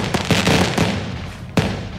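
Fireworks bang and crackle in a quick cluster of sharp bursts, then a lull before one more loud pop, each blast trailing off into a rumbling, hissy decay. No voices.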